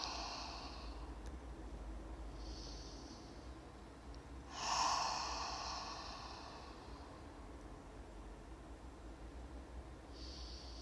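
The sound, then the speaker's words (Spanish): Slow, deep breaths drawn in through the nose and let out softly through the mouth, several airy inhales and exhales, one longer and louder, over a low steady hum. “Tomamos unas respiraciones más expansivas, inhalando por la nariz y exhalando suave por la boca.”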